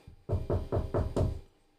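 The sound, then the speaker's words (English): Five firm, evenly spaced knocks on a customer's wooden door, loud, each with a short hollow resonance, followed by quiet. “i knock on the door”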